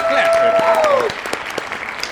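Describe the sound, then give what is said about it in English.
A burst of steady clapping from several people, loud at first and tapering off, with a high, sliding whistle-like cheer riding over the applause in the first second. “Clap it up.”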